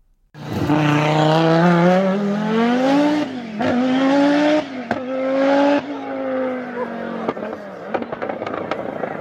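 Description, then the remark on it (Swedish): A loud Audi Quattro rally car engine roars alone, its pitch climbing and dropping through several gear changes, with sharp popping bangs between shifts and crackles as it eases off. “Quattron var oslagbar när den kom ut på sträckorna och ingen kunde väl motstå ljudet.”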